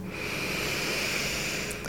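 A single long, deep breath drawn in through the nose during a breathing exercise, a steady airy rush lasting nearly two seconds, fairly quiet with no talking.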